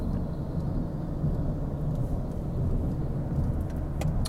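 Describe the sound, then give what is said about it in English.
Steady, loud low rumble of a car driving on a road, heard from inside, with a few faint thuds from bumps in the surface. No one speaks. “Uh, uh, apologies about the, the road noise. I'm going over, you know, these bumps, and it sounds like I'm driving over cat's eyes.”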